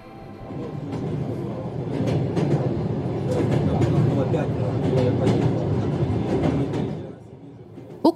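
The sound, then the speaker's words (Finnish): A medical train in Ukraine, carrying people in need of care, rolls along the rails with a steady rumble and intermittent clacking over the joints, then fades at the end. Indistinct voices murmur faintly in the background. “Ukrainassa idästä länteen ja takaisin kulkee lääkintäjuna, joka kuljettaa hoitoa ja hoivaa tarvitsevia ihmisiä turvaan.”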